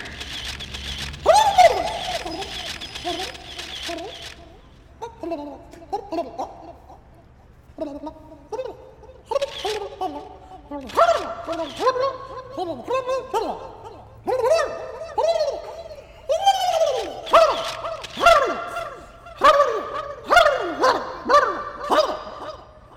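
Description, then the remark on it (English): A turkey, introduced as President Regal Eagle Turk Turkey giving a Thanksgiving speech, gobbles over and over in quick, loud, rattling bursts, the bubbly calls coming in uneven clusters after a brief hiss at the start, with no talking. “The, uh, we now take you to President Regal Eagle Turk Turkey.”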